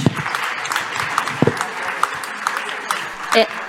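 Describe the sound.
An audience breaks into steady, dense applause lasting several seconds for a participant called up to receive gifts, many hands clapping at once, with a few voices calling out over the noise.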